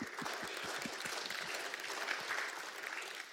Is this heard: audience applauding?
yes